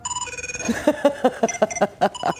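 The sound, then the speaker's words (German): A distinctive electronic phone ringtone from a TV series sounds on its own: a quick series of bright, chirping tonal pulses repeating in a steady rhythm, loud, with no talking over it. “Ich liebe diesen Klingelton.”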